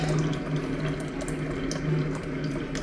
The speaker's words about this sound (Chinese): 哦，我在我在倒水。欢迎七彩萌兽。啊，对，饮水机的声音。我靠，为什么？我说水为什么这么烫？我点了个一百度的热水。